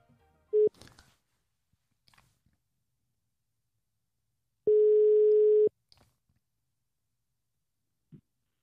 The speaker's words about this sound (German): schnappe ich mir jetzt mal mein äh, Telefon und wir rufen die Britta mal an